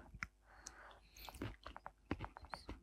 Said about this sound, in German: Man hört, wie die Gräten in, unter deinen Zähnen zerbrechen.